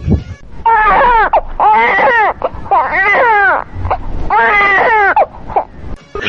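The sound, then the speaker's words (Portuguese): A person fake-cries in loud, exaggerated sobbing wails, about four long quavering bursts broken by short catching breaths, with no other talking. “Você tá chorando agora, inclusive.”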